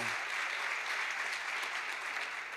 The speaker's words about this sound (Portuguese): Glória a Deus por isso. Aplauda ao Senhor. Se é para aplaudir, aplauda de verdade. Aleluia!